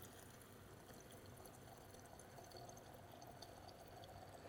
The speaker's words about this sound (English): So what we're going to do, we've got 12 grams of coffee. I'm going to add water filled up to the bowl, which is around about 180 mils of water. We're going to leave it for four minutes and then we're going to break.